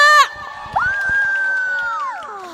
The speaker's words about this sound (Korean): 박수!